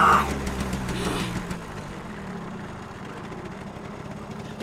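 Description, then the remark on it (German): A car engine idles with a steady, low rumble after a brief louder burst at the start, following sudden braking, holding an even drone for several seconds with no voices. “Monika, halt sofort an jetzt!”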